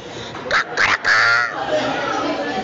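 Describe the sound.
The rooster Felipe crows loudly from the top of the henhouse, a few quick choppy bursts rising into one drawn-out call, then fading into a steady background hiss.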